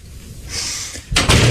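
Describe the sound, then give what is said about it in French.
A door slams shut with a sudden, loud bang followed by a second quick knock as it settles, after a moment of soft background hiss; no one speaks. “Oh, la, porte euh, vient de claquer”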